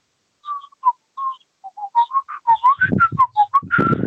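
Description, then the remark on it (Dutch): A melodic whistled tune, clear, a sequence of short bright notes rising and falling in a steady rhythm, with a low hum of background noise joining in the later part. “Je hebt nu een paar andere punten aangekaart, maar ik vind ook gelijk eh, het deuntje, het fluiten, eh, dat, dat gelinkt wordt aan de seriemoordenaar”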